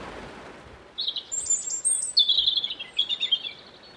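A European robin sings high, thin warbling phrases in a quick, varied run, clear above the soft, steady rushing of a small waterfall.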